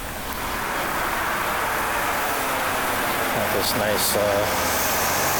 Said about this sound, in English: semi coming in here. Sorry for the noise.